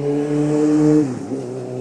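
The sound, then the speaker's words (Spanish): A motorcycle engine drones loudly with a steady, buzzing tone, then its pitch drops sharply as it passes by and fades into a lower rumble. “¿Moto?”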